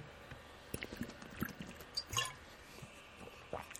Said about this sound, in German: Ich muss mal einen Schluck trinken, Augenblick.